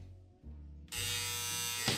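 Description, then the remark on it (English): A low electrical hum gives way to a loud, harsh, steady buzz from a device alert, like an appliance alarm or dryer buzzer, droning continuously for about a second. “Just, it sounds like your laundry's dry.”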